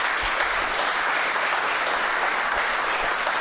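Steady, loud applause from an audience, a dense wash of many hands clapping continuously without a break, with no voices rising above it.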